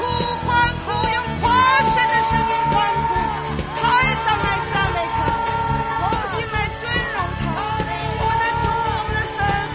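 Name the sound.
audience cheering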